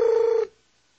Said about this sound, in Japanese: 電話が鳴った。お母さんかもしれない。でも、あのお姉さんかもしれないから出るのなんかこう素直に受話器を受け取れないで断ってるとプルルなるから仕方ない